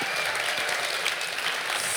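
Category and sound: crowd, warm audience applause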